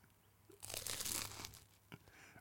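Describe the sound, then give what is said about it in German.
A crunchy bite into crispy food: a loud, bright crackling burst lasting under a second, followed by softer crunching and one short snap, with no talking. “beiß noch mal bitte ab, dann wissen die Leute bestimmt, was du da gemacht hast.”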